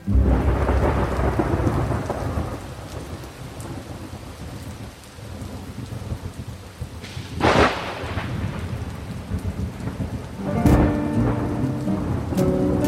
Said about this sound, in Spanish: José Pedroni dice que llueve, llueve por todas partes, sobre el trigal sediento, sobre las largas calles